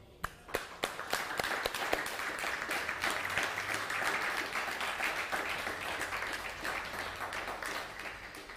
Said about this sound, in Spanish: Pues Baruch Hashem, fuerte aplauso.